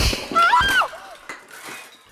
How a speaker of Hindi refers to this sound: ये कहकर नंदिनी ने विधि को धक्का दे दिया जिससे ऑपरेशन करने के सारे औजार जमीन पर गिर पड़े